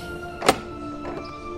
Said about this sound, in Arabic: فطرق البحار مره اخرى وبعد فتره فتح الشاهد له الباب متكئا على عكازه